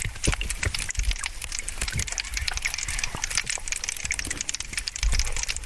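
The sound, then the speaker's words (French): Dense, continuous crackling and popping underwater beneath sea ice, like ice shifting and fizzing beneath a frozen surface, with occasional louder cracks and a low rumble throughout. “Là, vous êtes sous l'eau. Vous êtes sous la banquise.”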